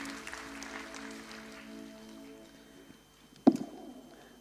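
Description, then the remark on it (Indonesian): Audience applause at a church service for the people serving that day, a steady wash of many hands clapping over sustained musical tones, fading out after about three seconds, followed by a single sharp knock. “Silahkan duduk teman-teman semua, mari kita berikan tepuk tangan untuk teman-teman yang melayani hari ini.”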